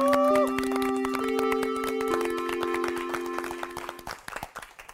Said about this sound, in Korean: 어, 오늘 종소리는 유난히 좀큰것 같아요. 네. 엄청 크네요. 요 힘차게 시작하라고. 대학교인 줄 알겠어.